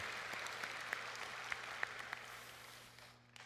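Audience applause at a church service, given in thanks just before the sermon: a steady, dense wash of many hands clapping, with a few sharper individual claps standing out, fading toward the end.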